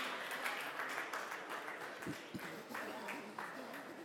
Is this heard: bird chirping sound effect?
no